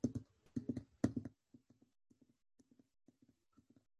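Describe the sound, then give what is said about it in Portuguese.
A horse's hooves plod through snow: a few loud, crunchy steps, then a steady rhythm of softer, paired footfalls that grow fainter. No one speaks. “É o cavalo indo caminhando na neve, né? Vocês estão escutando daí a sonoplastia?”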